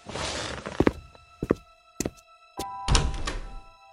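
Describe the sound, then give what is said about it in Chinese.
A door being opened: a run of sharp wooden thunks and clicks, four or five in quick succession, over a steady low hum and hiss, with no voices. “我起来赶紧打开门。”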